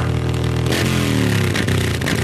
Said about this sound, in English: Oh, is that a Datsun Mustang Road Killer? Um, I'm not a car guy, as you can clearly tell. Is that a Viper? Listen to that engine hum.